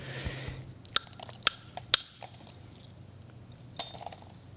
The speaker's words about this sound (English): good, the antler is grabbing the edge. It's not simply smashing it, it's literally getting cut itself. The obsidian cuts into the antler, and that gives the ant- antler a hold on the obsidian edge as it's effectively pulled off and down.